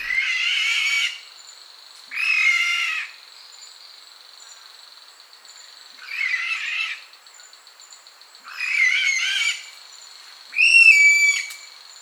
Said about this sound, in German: Der Vogel der Woche, die äh, Aldabra Weißkehlralle. Mann, ist gut. Ach so, wie ruft die eigentlich?